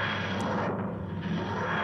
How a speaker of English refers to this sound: Until you hear a sound. You hear a sound like the wheezing and groaning of ancient engines, and materializing on the scaffolding uh, on the other side near the hand crank is a scholastic book fair box